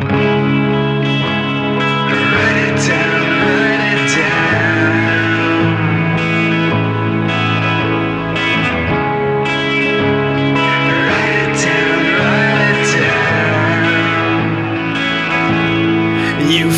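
A rock song plays at steady, loud volume, with sustained distorted guitar chords, a driving bass line and rhythmic drum hits carrying through the whole stretch, no vocals standing apart from the music.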